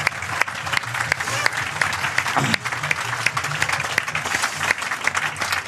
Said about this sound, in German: Und das ist auch auf jeden Fall nochmal ein Applaus wert.